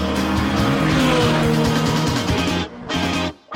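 During a car media outlet's vehicle test of straight-line acceleration and emergency braking, a car engine roars hard and steady for a few seconds with harmonics shifting, then brakes abruptly with a brief tire squeal, cutting out in two sharp drops. No one speaks.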